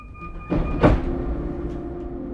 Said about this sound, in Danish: Så nu sidder jeg i S-toget på vej ud til min mor i Ølstykke – mens rækker af byhuse bliver til parcelhuse og så til åbne marker uden for vinduet, genlæser jeg endnu en gang siderne i dagbogen.